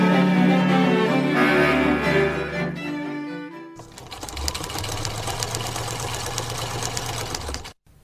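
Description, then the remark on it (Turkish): A sewing machine runs as someone sews indoors, with a steady, rapid mechanical rattle and whir, following a few seconds of tonal humming, then cuts off abruptly near the end. “Ben içeride dikiş dikiyorum.”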